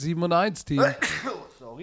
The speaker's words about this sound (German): Gesundheit